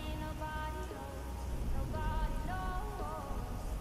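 Steady, dense rain patters continuously, moderately loud, with soft sustained melodic tones drifting over the wash of falling drops.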